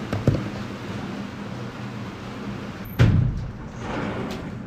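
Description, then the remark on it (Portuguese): A window or door is pulled shut while it is raining: a light knock near the start, then a firm thud a few seconds later, over a steady hiss of rain outside. “Espera só um pouquinho, deixa eu fechar aqui, senão tá chovendo.”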